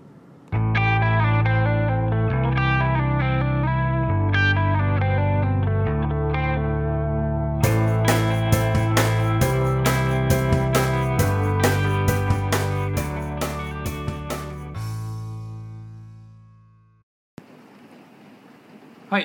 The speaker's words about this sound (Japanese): 前も紹介したかもしれないですけどねまた車で聴いてますんで車にもドライブにぴったりの曲かなと思うんで聴いてください